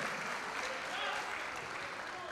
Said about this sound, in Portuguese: Você pode dar um glória a Deus? Aplaudir a Ele, Ele, Ele fez isso por você.